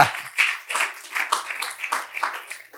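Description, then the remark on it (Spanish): Thin, scattered applause from a crowd clapping for God, a few hands clapping unevenly for a few seconds at moderate volume, with no one speaking over it. “Como que está matando mosquitos, ¿no? Pa, pa. No, no, apláudale a Dios si le va a aplaudir.”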